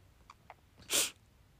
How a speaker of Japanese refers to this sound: あ、くしゃみでそう。